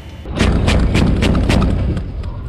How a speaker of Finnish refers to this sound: Salva! Fem skott i luften.